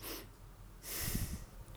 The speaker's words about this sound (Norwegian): Og så når du skal ta denne testen, så tar du et lite innpust.